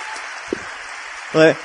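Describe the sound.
A steady wash of applause fills the whole moment, a dense, even patter of clapping, with a brief voice cutting in near the end.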